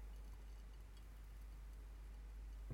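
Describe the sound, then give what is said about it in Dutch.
Soft, steady fizzing of tiny bubbles crackling in a glass of freshly poured wine, a faint continuous hiss of small pops with no voices. “Heel zachtjes knappen er belletjes in het glas.”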